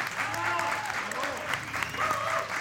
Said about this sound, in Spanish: Fuerte el aplauso para Paca la Piraña.